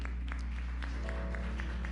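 An audience applauds God in steady, rhythmic unison, the claps landing in an even pulse of roughly three per second over a low, constant background hum. The clapping is fairly soft, with no voices.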